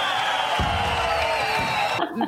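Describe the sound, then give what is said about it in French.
A loud, dense crowd roars with cheers and whoops for about two seconds, a steady wall of excited voices that cuts off abruptly near the end. “La foule est en délire”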